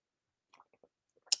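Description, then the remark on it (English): Someone takes a quiet sip of tea: a few soft mouth clicks and wet smacks, then a short airy slurp at the end, with no talking. “I got my tea right here. Let me sip this because I feel something here”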